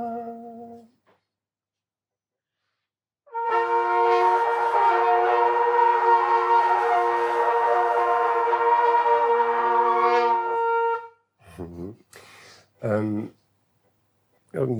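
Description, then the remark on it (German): A sustained brass note on C2, steady and bright with rich harmonics, holds for about seven seconds and then cuts off abruptly because it is stopped with the tongue, followed by brief spoken words. “daher war gerade der Ton am Ende so abgehackt.”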